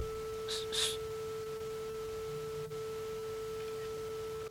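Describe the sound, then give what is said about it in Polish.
A quiet, soft camera shutter click from a phone app taking a photo to scan text, two quick crisp snaps in close succession, heard over a steady faint electronic hum with no one speaking. “Po cichu było słychać aparat, migawkę.”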